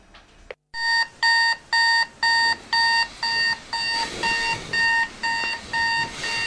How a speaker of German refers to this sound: Der Durchschnittsdeutsche wacht um exakt 6.18 Uhr auf. Zumindest klingelt da der Wecker.